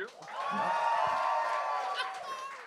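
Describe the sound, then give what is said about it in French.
An audience at the Gong Show in Québec cheers and shouts steadily for a few seconds as a performer is introduced on stage, a dense wash of voices and whoops at a consistent, lively volume. “Les amis, faites-moi du bruit, s'il vous plaît!”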